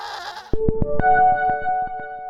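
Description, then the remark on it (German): A goat lets out a long, loud, quavering bleat, its voice pulsing in a rapid tremor, after a brief burst of rough noise. “Glückliche Ziegen sind die wichtigste Zutat für unseren Qualitätsziegenkäse.”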